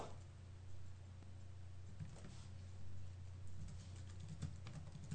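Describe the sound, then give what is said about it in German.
Soft, irregular clicking of someone typing on a laptop keyboard, heard faintly in the background over a steady low hum, with no one speaking. “Ich finde das Tippen des, des Laptops, das ist immer angenehm im Hintergrund.”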